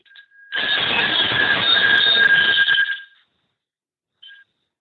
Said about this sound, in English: Is that a string of bells? No, that's just four open faced bells called oh. team bells. They're Canadian. But uh, but listen to them. This bell has a lovely. They, they oh, just listen to how long they ring.